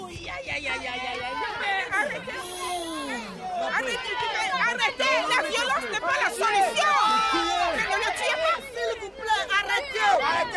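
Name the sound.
angry crowd shouting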